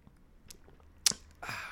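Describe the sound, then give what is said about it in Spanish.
A quiet sip of hot coffee: a brief sharp click, then a short, airy slurp that trails off. No one speaks. “vamos a entrar de lleno con estas preguntas, no sin antes vamos a darle un traguito mm,”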